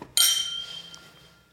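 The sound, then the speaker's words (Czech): A single bright clink of glasses touching in a toast, sharp at the start and then ringing out with a shimmering tone that fades over about a second, fairly clear with no talking. “Takže na zdraví. Na zdraví.”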